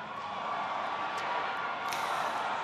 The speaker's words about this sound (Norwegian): Vi hører her at Obama tidlig i talen ble avbrutt av publikum som ropte fire år til. Det kan jeg ikke gjøre, sa han.